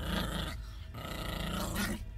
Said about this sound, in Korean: 이 상황을 납득시킬 만한 해답을 고민하고 있던 와중에 난 내 등 뒤에서 짐승의 낮은 으르렁거리는 소리를 들었다.